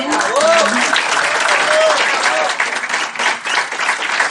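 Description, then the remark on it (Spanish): Loud, sustained applause from a crowd at the close of a training session, a dense steady wash of many hands clapping for several seconds, with a few faint voices and whoops rising briefly through it. “Estuvo buenísimo y les he pedido otra vez un aplauso fuerte.”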